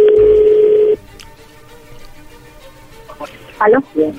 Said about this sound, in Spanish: No haga ruido, ahí se está marcando.